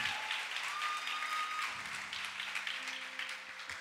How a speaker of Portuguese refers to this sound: Aplauda ele, igreja. Aplauda ele.